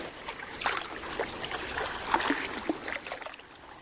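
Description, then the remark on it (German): Gentle water lapping and sloshing in a thermal bath pool of healing water, soft irregular splashes and gurgles, steady and calm with no voices. “Es tut so gut, sich von den Wellen leicht bewegen und von dem Heilwasser heilen zu lassen.”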